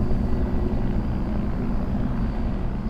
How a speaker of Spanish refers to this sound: El sujeto cerró sus ojos para prepararse ante el ataque de esta criatura, pero para su sorpresa, un helicóptero sobrevolando la zona logró iluminar el área donde ésta se encontraba, haciendo que la criatura se adentrara en las sombras.